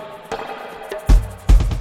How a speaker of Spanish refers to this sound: Voy a sacarle todo excepto la batería. Ahí está. Y a la batería le pongo reverb.